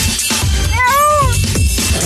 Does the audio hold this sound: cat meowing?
yes